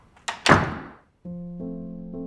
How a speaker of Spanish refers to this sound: Ella cierra mi puerta.